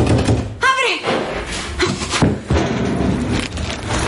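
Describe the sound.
A door slams shut as a boy locks a woman inside and flees on his bike, followed by several heavy thuds of banging on the door, loud, while a voice cries out over a busy, noisy background.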